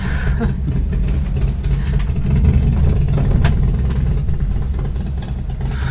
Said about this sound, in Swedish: Extra störande med mina kollegor som gillar att köra motorcykel.